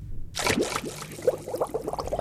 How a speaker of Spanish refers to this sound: Pero el sapito, confiado en la promesa, se sumergió en el agua.